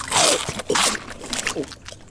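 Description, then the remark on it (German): Loud crunching of someone chewing crisps, several brittle bursts in an uneven rhythm that fade toward the end, with no talking. “Kannst du nicht leiser kauen?”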